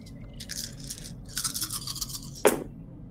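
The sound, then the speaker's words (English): Seven dice, rolled on the track for a science discipline test in a tabletop game, rattle and skitter in a series of quick, scratchy bursts for about two seconds, ending in one sharper clack as they settle. No one speaks. “So you're going to roll seven dice here on the track.”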